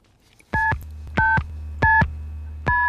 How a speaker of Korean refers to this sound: 아, 전화 다이얼 누르는 소리군요.